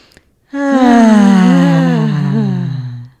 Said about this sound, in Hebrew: וכשאנחנו נושמים, אנחנו בעצם רוצים להיות כמה שיותר רפואיים. בדיוק, אז בואו ניקח נשימה.